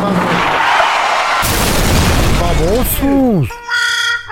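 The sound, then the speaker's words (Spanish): A loud car crash effect: a sudden burst of crunching noise, a few sliding squeals, then a steady, blaring car horn held to the end, as a newly bought car is crashed and wrecked less than two blocks after setting off. “le fueron a chocar, a destartalar el carro.”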